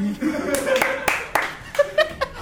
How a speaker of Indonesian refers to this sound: tepuk tangan teman-teman